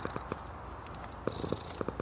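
A cat purrs in a low, steady rumble that pulses rhythmically, with a few soft clicks and taps near the end. No voices.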